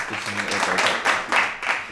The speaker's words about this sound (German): Da kann man auch mal klatschen, oder? Da kann man auch mal klatschen für deine Eltern. Kann Applaus, Applaus.